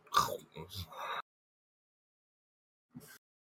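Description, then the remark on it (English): A voice imitates the huge jaws of a giant eating a whole planet, making a rough, snorting burst of gnashing, crunching noises for about a second, then after a pause, one short final chomp. “Third person shots of, like, the whole planet just being consumed. Uh, with his choppers. You like the sounds it makes, like.”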